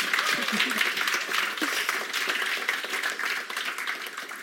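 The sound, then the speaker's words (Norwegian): An audience applauds steadily for several seconds at a launch event for the poetry collection 'Eg et før eg kjem', a dense wash of many hands clapping at once, even in loudness throughout. “Jeg tenker Vi kaster på oss en applaus til for endelig bok.”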